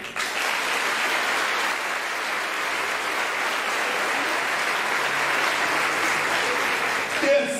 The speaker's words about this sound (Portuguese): Pode aplaudir.